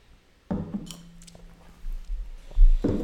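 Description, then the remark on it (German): A brief, light clink of glass rings out near the start as a toast, followed by soft handling noises and quiet sipping or swallowing sounds, with no talking. “Ähm, ja, oh, das sind schon zwei Schlücke jetzt, oder was? äh, ja, Prost.”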